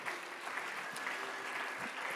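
An audience stands and applauds God, a dense, even wash of many hands clapping at a constant level for the whole stretch, with no voices standing out.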